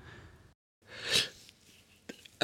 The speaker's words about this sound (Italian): Un paio di secondi di imbarazzo, prima che la ragazza cercasse di rimediare con qualche convenevole generico subito interrotto da uno starnuto da parte della signora del comitato.